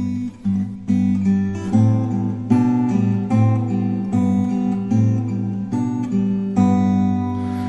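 An acoustic guitar played fingerstyle, plucked bass and treble notes repeating in a steady rolling pattern with a chord change every second or so, clear with no talking.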